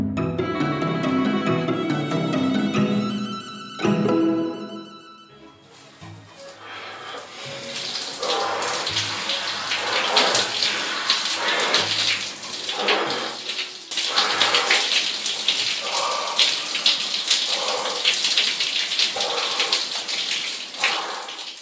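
A cold shower runs steadily with a dense, hissing spray of water splashing down, fairly loud, after a few seconds of short tonal music at the start.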